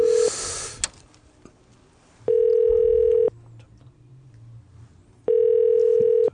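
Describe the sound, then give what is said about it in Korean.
A telephone ringback tone of an unanswered call to Saenuri Party spokesperson Park Seon-gyu sounds in two long, steady buzzing pulses, about a second each, separated by a pause, with a brief hiss at the start and quiet background noise between. “지금 저도 전화를 여파를 하고 여덟 통 하는데 전화를 안 받고 있어요.”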